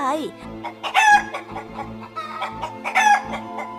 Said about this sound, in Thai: แม่ไก่ได้ร้องเสียงดังลั่น จนเจ้าสุนัขที่อยู่หลังบ้านวิ่งออกมาดู